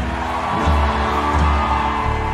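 A loud, steady roar of a crowd shouting and cheering, a dense wash of many voices with a low rumble underneath, holding at an even level for a couple of seconds.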